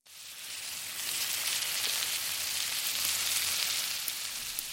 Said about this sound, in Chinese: 烤肉在烤盘上滋滋作响，正在变得焦黄。